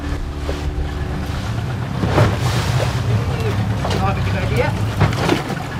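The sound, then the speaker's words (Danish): Waves slosh and splash steadily against a small boat's hull, with a low engine-like rumble and wind noise throughout and occasional voices in the background; it is not very windy out on the water, yet there are quite a few waves. “Der er alligevel lidt, selvom øh, det ikke blæser al øh, verden herude, så er der alligevel øh, en hel del bølger.”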